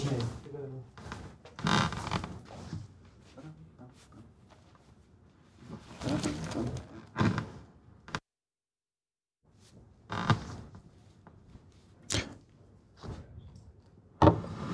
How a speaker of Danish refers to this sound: Lytter, kan du høre det her? Nej. Det er mig, der sætter et... Øh glas te på bordet. Det er min te.